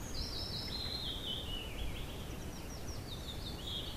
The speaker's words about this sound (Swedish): Men alla har inte möjlighet att sitta på sin sommarstuga och lyssna på fågelkvitter.